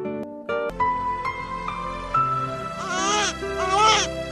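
A newborn baby cries in loud, wavering wails, its pitch sliding up and down across a few strained bursts that grow harsher toward the end.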